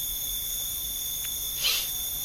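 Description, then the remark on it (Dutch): A steady, high-pitched chorus of crickets chirping after dark on a mountain beside a house, continuous and even throughout, with a brief slightly louder rustle near the end and no voices. “We zitten nu, eh, ik denk dat je, dat je door de microfoon kan horen, dus dat mensen thuis horen, is nu. zijn krekels.”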